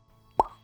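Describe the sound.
A single mouth-made pop imitating a bottle being uncorked, a short hollow plop with a brief resonant tail, fairly loud against a quiet background.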